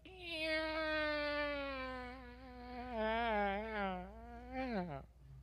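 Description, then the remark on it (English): A person imitates an alley cat in heat, a drawn-out, wavering yowl lasting about five seconds that slowly sinks in pitch and ends in a sharp downward slide, loud. “Some of you, you know, you, you sound like an alley cat in heat.”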